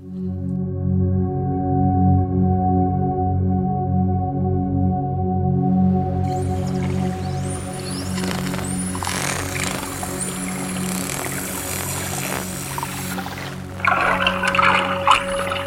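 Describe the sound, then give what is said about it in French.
Underwater dolphin recording: a steady low drone gives way to high, sweeping whistles and bursts of rapid clicking, fairly loud, with no one speaking. “Les dauphins, en fait, c'est des sifflements et des, clics.”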